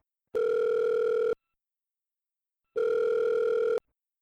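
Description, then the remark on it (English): A phone line rings back twice as a call is placed, each steady electronic ring lasting about a second with a pause between, clear and fairly loud, with no voices. “Let's call her on the phone.”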